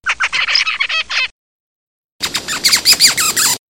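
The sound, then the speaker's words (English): Zebra finch calls: two bursts of rapid, nasal, squeaky chirps repeated in quick succession, separated by a short silence, the second burst over a faint hiss of background noise. “And then the last one is the call of the zebra finch.”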